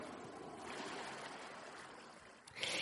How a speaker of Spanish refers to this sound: vamos a poner aquí un sonido agradable, así como las olas del mar, para que te lo pienses? Escuchamos aquí el mar mientras te lo vas pensando.